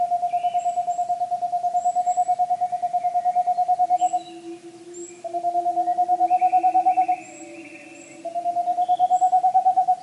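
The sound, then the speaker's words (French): A Tengmalm's owl (boreal owl) repeats its song: quick, evenly spaced hoots run together in three clear bursts with short pauses between, steady, with faint background chirps and no talking. “c'est une petite chouette boréale qui vit”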